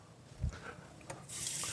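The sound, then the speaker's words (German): A soft knock, then more tomato water (water with a lot of tomato paste) is poured into a pot holding about 2 kg of minced meat and 600–700 g of vegetables, a steady hiss and splash rising toward the end; faint background clatter, no talking. “Gebe nochmal ein bisschen dazu, aber jetzt auch nicht mehr so viel.”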